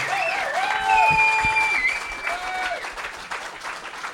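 An audience claps steadily and loudly for about four seconds, a dense, continuous wash of hand claps that holds its strength throughout with no one speaking over it.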